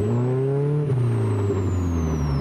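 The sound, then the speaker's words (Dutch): The four-cylinder 154 hp Ford engine of a Plus 4 sports car with an Aero Racing sport exhaust drones loudly and steadily, its deep harmonic rumble shifting down slightly in pitch partway through, with a thin high whine above it. No one speaks. “Ja, het motorgeluid, die krijgt wel een hele mooie nadruk hier.”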